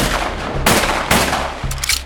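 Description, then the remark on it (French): Three loud gunshots ring out, roughly half a second apart, each a sharp crack followed by a ringing, rumbling tail that overlaps a continuous low background roar, as Jacques Mesrine shoots Tillier three times in a forest cave and leaves him for dead. “Après l'avoir forcé à se déshabiller, il le passe à tabac et le prend en photo dans son plus simple appareil, avant de le laisser pour mort avec trois balles dans le corps.”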